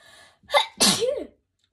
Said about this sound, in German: äh, Entschuldigung, musste kurz niesen.